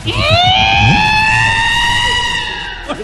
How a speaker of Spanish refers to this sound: Está volando ese Está volando Ahí se le quemaron dos pistones. Hace rato no pasaba ese carro por acá.